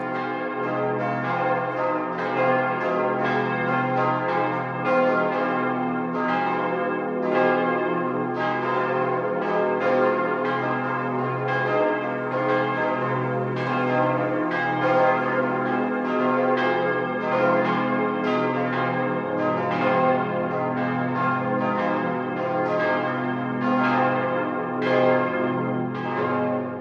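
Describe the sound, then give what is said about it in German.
The 12 o'clock midday ringing of the bells of the Benedictine abbey at Niederalteich on the Danube, Lower Bavaria, broadcast on Bayern 1: several bells ring together in a full, continuous peal, overlapping strokes forming a dense, steady clangor with deep hum beneath, loud and unbroken throughout with no voices. “Das Mittagsläuten kommt heute aus Niederalteich an der Donau.”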